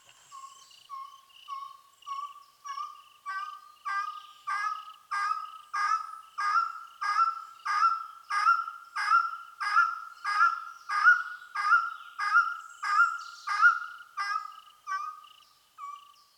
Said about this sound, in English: That's the sound of Dendrortyx macroura, the long tailed wood partridge. Some ornithologists call it the long tailed wood quail. This is an elusive, skulking bird that keeps to the shadows.